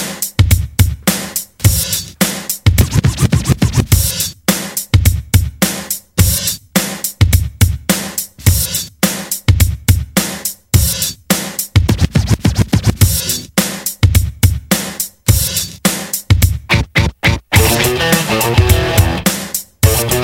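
A loud hip-hop rock song plays, with punchy rhythmic beats, dense distorted instrumentation and turntable-style scratching bursts running throughout, no talking over it.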